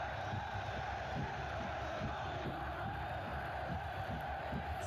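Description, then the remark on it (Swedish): A huge football stadium crowd roars continuously before kickoff of a big match, a dense wall of cheering and shouting with rhythmic pulses of chanting, loud and enveloping without any clear individual voice. “Det är bara riktigt stora matcher som vibrerar så här.”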